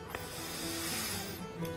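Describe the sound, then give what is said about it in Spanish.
A slow, breathy exhale lasting just over a second, a soft steady rush of air that fades out at the end, heard alone with no talking. “La respiración. Cada respiración lenta se dice frena en 20 segundos minutos de locuras mentales.”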